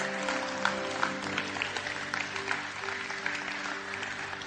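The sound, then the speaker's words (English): A church audience applauds for the Lord during a sermon, a dense wash of many hands clapping at once, sustained and fairly loud throughout, with no voices standing out above it. “Yeah, you can actually really clap the Lord for that because that's.”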